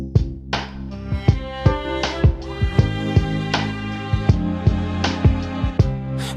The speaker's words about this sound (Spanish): googlear la letra de esta canción que voy a dedicarle a todos los que le tienen miedo al amor porque lo que más frágil tienen es el corazón y no quieren que se lo rompa.